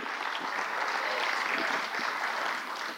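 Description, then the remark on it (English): Steady applause from an audience at a service, a dense patter of many hands clapping at a constant, fairly loud level without a break. “Let's give him a hand.”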